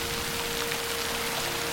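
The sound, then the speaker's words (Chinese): Steady rain falling, a dense continuous hiss of drops with an even, unbroken texture and a faint low tonal hum underneath, no voices. “下雨了！庄稼有救了！”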